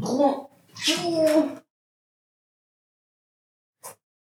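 A cat lets out a couple of drawn-out meowing cries in quick succession, followed by silence and a brief faint click.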